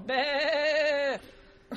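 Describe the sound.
A person imitates a goat with a single sustained, nasal bleat lasting about a second, fairly loud, followed by a brief breathy sound.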